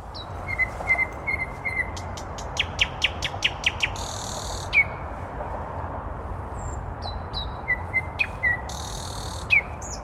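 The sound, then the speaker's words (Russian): A common nightingale sings in Muzeon park in Moscow over steady low background hum, mixing clear whistled notes, a rapid run of sharp repeated clicks, and harsh buzzy phrases, prominent with no talking. “Соня, это соловей, самый настоящий.”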